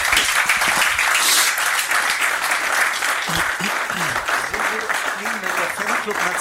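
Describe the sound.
A studio audience applauds steadily throughout, a dense wash of many hands clapping, with a few voices faintly audible beneath the applause.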